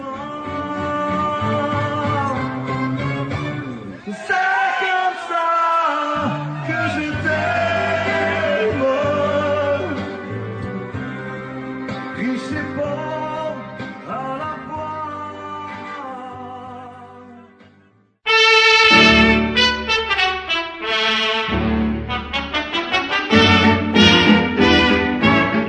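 A French chanson recording plays loudly and steadily, with a singing voice over lively band accompaniment, then drops out for a moment before bursting back in even brighter and fuller.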